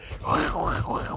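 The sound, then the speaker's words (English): A single voice makes a wavering, drawn-out vocal creak, imitating the black leather outfit worn by Terry squeaking and stretching off camera in a TV scene. It's fairly loud, with the pitch rising and dipping for about a second. “That's the sound of black leather.”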